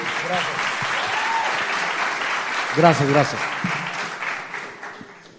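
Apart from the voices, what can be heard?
applause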